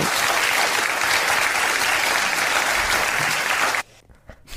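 Sustained audience applause related to Ebba Witt-Brattström, a dense, even wash of many hands clapping at steady loudness for several seconds, then cutting off abruptly into near silence with a few faint scattered claps.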